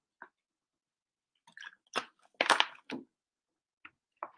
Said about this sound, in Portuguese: Só, só tomar um golinho aqui. De água que a garganta não está ajudando.